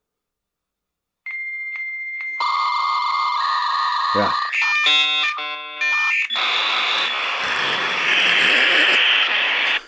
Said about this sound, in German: ja, so klang das, wenn man sich damals eingewählt hat.